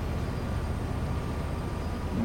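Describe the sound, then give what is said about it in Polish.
A steady, heavy low rumble fills the whole stretch, heard while riding aboard a freight train hauled by a locomotive that once served as a passenger locomotive, with no voices and a constant grinding drone throughout. “Jadę sobie pociągiem towarowym.”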